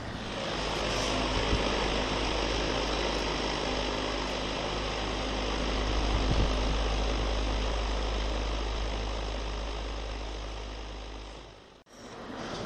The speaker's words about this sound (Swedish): höll eh, diktafonen mot fläkten.